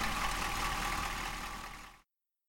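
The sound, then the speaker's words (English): A heavy truck engine rumbles steadily for about two seconds, slowly growing quieter as the truck drives off, then cuts off abruptly. No voices are heard. “He leapt into the truck, slammed the door, and drove off, too scared to look back.”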